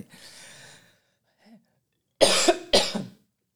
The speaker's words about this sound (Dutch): Ik moet nou, ik moet hoesten.